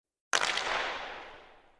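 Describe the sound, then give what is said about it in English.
A single sharp crack of a hockey slap shot sound effect breaks the silence, loud, then rings out in a bright, echoing decay that fades over about a second and a half. “If not, you hear the slap shot.”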